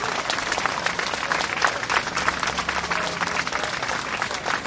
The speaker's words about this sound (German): Aber zuerst bitte ich um einen großen Applaus für alle Teams.